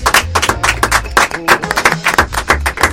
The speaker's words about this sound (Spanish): Bienvenidos a Viaje Por primera vez en la isla, los jugos locos. Fuerte ese aplauso para los jugos.